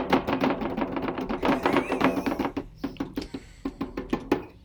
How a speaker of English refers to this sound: this drum is very loud trust me my cat is curious the dog is yelling which mission accomplished